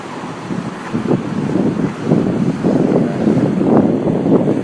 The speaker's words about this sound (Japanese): もしかしたら車の音でねほとんど撮れてないかもしれないですけど